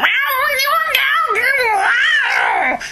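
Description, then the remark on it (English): A person imitates a cartoon cat from badly animated 1970s television adverts with a continuous run of warbling, garbled meows, wavering up and down in pitch for a few seconds, loud. “this kid, and his cat Charlie. And Charlie would go,”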